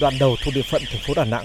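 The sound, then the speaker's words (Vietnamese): A steady, high-pitched electronic warning alarm at a toll station on the Da Nang–Quang Ngai expressway in Vietnam, signalling that a car may not pass, drones continuously beneath a person talking, holding the same pitch from start to finish at moderate loudness. “Đó là tiếng báo động nhắc nhở xe ô tô không được qua trạm thu phí trên cao tốc Đà Nẵng Quảng Ngãi”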